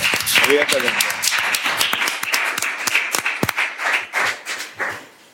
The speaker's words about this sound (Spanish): es uno de los nombres, podéis aplaudir, evidentemente.